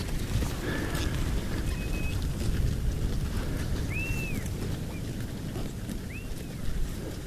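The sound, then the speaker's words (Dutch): An animal grazes, with a steady, dense crunching and tearing of grass throughout, while a few faint bird chirps sound. “Dat klinkt ook fantastisch, hè? dat geknabbel.”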